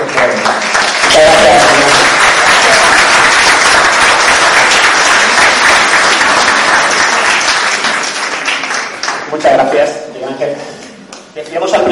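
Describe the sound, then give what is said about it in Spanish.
Sustained audience applause for the presenters being introduced fills the space for several seconds, a dense, loud wash of many hands clapping, then thinning out near the end as a voice begins speaking. “Así que un fuerte aplauso para ellos y os dejo con ellos”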